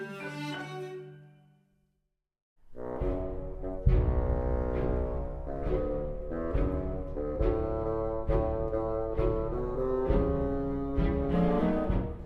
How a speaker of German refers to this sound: So kennen wir das Fagott, brummig und schlurfend, wie der Großvater in Sergei Prokofjews Peter und der Wolf.